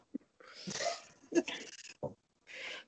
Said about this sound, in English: Sorry if you can hear my dog. He's freaking oh, out. Oh, that's my dog's passed out somewhere. he was, and then probably someone stepped on a stick outside, and now he's just going off about it.